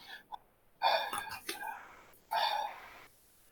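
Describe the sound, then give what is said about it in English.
A person makes heavy, breathy gasps: one long, rasping breath and then a second, shorter one after a brief pause. The voice seems to be imitating heavy breathing. “Heavy, heavy breathing.”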